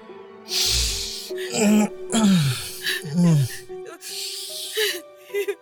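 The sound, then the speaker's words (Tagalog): Wavering sobs and whimpers come in several short bursts, with breathy, noisy gasps between them and a steady low hum underneath. “Be, bakit ka umiiyak?”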